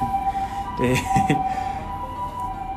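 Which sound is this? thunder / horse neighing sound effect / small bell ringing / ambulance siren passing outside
ambulance siren passing outside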